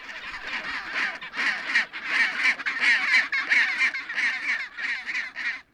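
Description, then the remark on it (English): A rookery of chinstrap penguins on the steep cliffs of an Antarctic island screeching: many harsh, raucous calls overlap in a dense, continuous chorus, pulsing in loud bursts roughly every half second, with no talking. “The whole island echoed with their harsh screeches that could even break the stones.”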